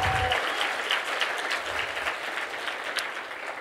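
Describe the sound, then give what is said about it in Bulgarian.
An audience claps together in a dense, steady burst of applause that holds for several seconds, broad and crackling, with no one speaking over it. “О, ако ръкопляскаш, ръкопляскай, като че Той е с тебе във всеки сезон на твоя живот.”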